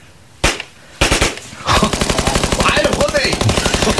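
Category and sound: sound effect, uzi submachine gun firing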